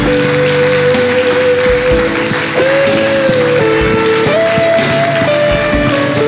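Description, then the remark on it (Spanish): Loud, sustained applause from an audience honoring the Lord, a dense continuous crackle of many hands clapping, with held musical notes sounding underneath throughout. “Vamos, vamos a honrar al Señor con un fuerte aplauso.”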